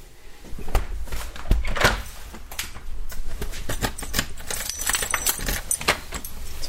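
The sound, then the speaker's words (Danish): Keys jangle and clink in a busy, irregular flurry of bright metallic chimes lasting several seconds as a house key is taken, with some soft handling thumps underneath and no one speaking. “Har du bilnøgle? tager jeg husnøglen.”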